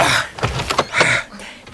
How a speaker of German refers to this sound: Ich mach mal die Tür auf.